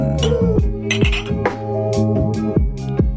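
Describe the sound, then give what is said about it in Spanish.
Bright ceramic clinks as a mug is taken out, knocking against other dishes, repeating every half second or so, fairly loud over a steady tonal background. “Saca tu tazón.”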